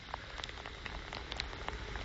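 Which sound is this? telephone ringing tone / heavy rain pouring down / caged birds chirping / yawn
heavy rain pouring down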